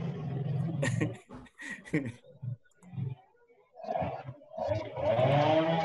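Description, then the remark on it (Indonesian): People talk while a buzzing, droning saw, like a chainsaw, cuts down a tree next door, growing louder and steadier toward the end. “Sebelah lagi nebang pohon.”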